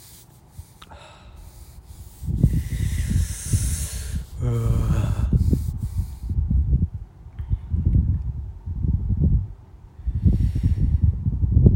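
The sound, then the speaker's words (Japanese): Gusty wind blows outside, rumbling in irregular low surges with a breathy hiss, fairly loud, while a radio show is being recorded outside rather than in the usual room at home; a person briefly exclaims partway through. “風の音とか入ってるんかなこのラジオ結構ね風鳴ってるんですよだから普段と環境変わるから音とかも変わって環境音が結構変わってる気がするんですけどどうなんかな”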